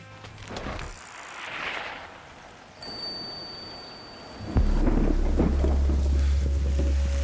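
Heavy rain pours down at Mundaka, a surfing spot, in a steady, dense hiss. Partway through, a loud, deep rumble like gusting wind or thunder swells in and stays under it. No one speaks.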